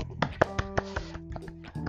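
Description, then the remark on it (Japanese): A single person claps their hands as self-made applause in place of background music, in a quick, slightly uneven burst of about half a dozen sharp claps, the later ones softer, over a faint steady hum. “はい、えー、あのね、拍手というか BGM が入れられないので、しばらくはですね、自前の拍手でお送りしたいと思います。”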